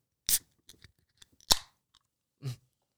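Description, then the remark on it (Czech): A Monster Energy drink can, Chaotic flavour, being opened: a sharp crack, scattered small clicks, then a second snap with a short fizzing hiss and a final soft thud. No one speaks. “Nic neříkej, kromě toho, že to otevřeš, OK?”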